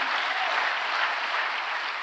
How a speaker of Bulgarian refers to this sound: Хайде, ако вярваш това, дай на Бога едно дарение на ръкопляскане.